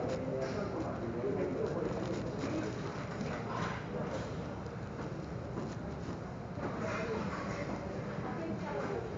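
Birds coo softly and repeatedly in a low, murmuring rhythm, set against a dense, steady wash of background noise that stays at an even loudness throughout.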